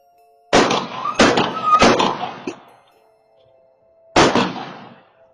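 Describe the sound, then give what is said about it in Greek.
Three sharp gunshots ring out in quick succession in a quiet neighbourhood, each with a short echoing tail, then a fourth shot follows after a brief pause. A faint steady hum sits underneath. “Ένας, δύο, τρεις πυροβολισμοί. Ο ένας γρήγορα πίσω από τον άλλον.”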